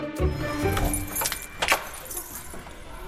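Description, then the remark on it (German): A school caretaker's large bunch of keys, including elevator, master and fuse box keys, jangles in repeated bright metallic clinks and rattles, with a low rumble underneath and some faint voice-like sound. “Sie haben auch den klassisch dicken Schlüssel, der gehört dazu.”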